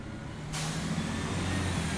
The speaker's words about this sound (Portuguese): está numa paragem do Cais Sodré à espera do autocarro.